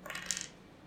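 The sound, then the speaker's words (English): Dice clatter briefly across a hard surface, a quick run of small bright clicks and rattles that settles within half a second, fairly quiet, with no voices. “So let's roll the dice.”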